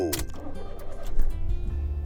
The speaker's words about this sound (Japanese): もう、勝手にエンジンがかかったな。自動運転機能、スタートや。